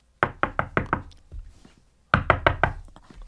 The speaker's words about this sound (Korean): 아 그래서 염치불구하고 화장실 문을 두드렸습니다.